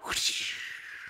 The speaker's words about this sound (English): What's that sound effect? Is that a whip? no, it's the sound of a revolver.